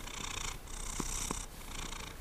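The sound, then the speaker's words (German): A cat purrs steadily, a continuous rumbling with a faint rhythmic pulse, soft and unbroken for a couple of seconds with no one speaking. “Da hört ihr ihn schnurren.”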